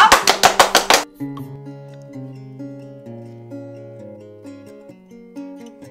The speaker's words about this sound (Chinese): 大家鼓掌。